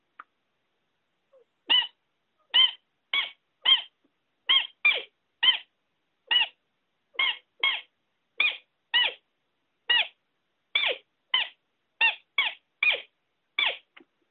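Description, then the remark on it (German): A roe deer lure sounds the squeaking 'Fiepen' call, a long series of short, high-pitched squeaking peeps, around twenty of them in an uneven rhythm with brief pauses, loud against silence, played over the telephone, with no talking. “Da darf ich schon immer so ein bisschen mehr, mehr Musik machen oder was heißt mehr Musik, etwas länger anhalten, aber mit dem Fiepen, wie gesagt, nicht übertreiben.”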